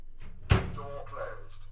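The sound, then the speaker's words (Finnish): A microwave oven with a rotating glass plate and grill elements shuts its door with a solid thump, followed a moment later by a short electronic beep, which the microwave gives for door opening and closing. “Kuten huomaatte, niin mikro jostain syystä ilmoittaa myös oven avaamis- ja sulkemistapahtumat.”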